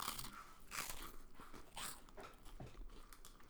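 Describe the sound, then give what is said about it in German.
Crisp crunching of two Hanuta hazelnut wafer snacks from the same pack in a studio, several sharp bites and chews at an uneven pace, fairly loud against a quiet background with no talking. “Das sind Hanuten. Zwei Stück aus der gleichen Packung.”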